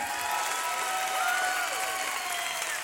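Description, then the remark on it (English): A church audience applauds visitors who came from California, a dense wash of clapping that holds at an even, fairly loud level throughout, with a few faint cheers or whistles rising above it. “I mean, anybody that comes all the way from California to go to church, we got to give them a hand. Put your hands together.”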